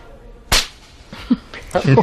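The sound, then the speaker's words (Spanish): A single sharp, loud slap to the face in a comedy clip cracks out near the start, followed by brief vocal sounds and a short burst of voices toward the end. “la gente lo que quería era ese momento de la catarsis de la bofetada, como por ejemplo en este clip.”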